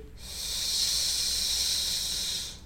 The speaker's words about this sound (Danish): Prøv vi at puste ud. Den her skal du lave et S